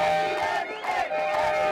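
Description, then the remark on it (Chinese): A loud crowd of street protesters shouting and whooping together, over steady, unbroken horn tones that blare continuously for the whole short stretch, from a whole row of taxis honking in protest as truck and taxi drivers in Spain demonstrate in the streets over high fuel prices. “西班牙的卡车和计程车司机都走上街头示威，抱怨油价太高，实在吃不消。”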